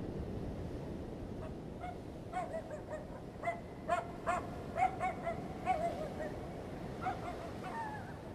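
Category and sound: animal, dogs barking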